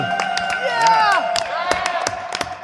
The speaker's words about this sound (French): On voit que le public est déchaîné. La foule est en liesse.